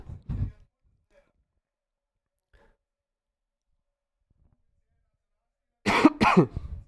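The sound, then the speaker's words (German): A brief cough at the start, then a long quiet gap before a louder double cough near the end, from a speaker with a lingering cough. No talking. “Noch ein Huster.”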